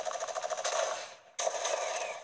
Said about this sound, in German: Also hier irgendwo höre ich doch Schüsse.